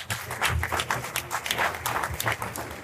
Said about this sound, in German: Schon mal bitte einen Applaus für alle, die sich hier bereit erklärt haben heute Nachmittag.